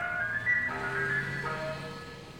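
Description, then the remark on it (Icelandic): An ice cream truck plays its tinkling chime melody over a low, steady engine rumble as it drives along, the bright tones rising and falling continuously. “Á sólríkum sömardögum keira íspílar um borgir, bæi, strandir og sveitir og selja krökkum og fullornum ískalda pinna sem gleðja og kæla”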